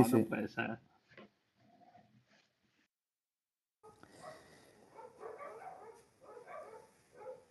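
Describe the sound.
A quick burst of loud, sharp dog barks opens, followed by a few fainter yips, then a pause and a stretch of muffled, voice-like sound in the background.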